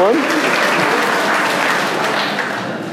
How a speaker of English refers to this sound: He deserves a round of applause for that